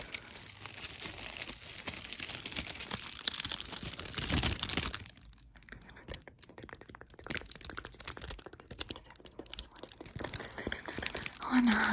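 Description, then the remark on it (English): Dense paper crinkling and rustling as paper is wrapped around a person's head, steady for several seconds, then thinning into sparser crackles and soft handling noises. “and then right here, and then just sort of wrapping it around your head.”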